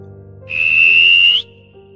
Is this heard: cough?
no